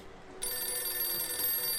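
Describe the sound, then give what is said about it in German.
A telephone bell starts ringing abruptly and keeps ringing steadily, a bright, continuous metallic trill, with no voices over it. “Oh, soll ich das Telefon lassen, Mann, ich kehre um”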